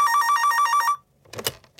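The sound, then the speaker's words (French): A telephone bell rings loudly in one rapid trilling burst, then cuts off, followed by a brief clatter like a handset being picked up. “À ce moment-là, une sonnerie se fit entendre.”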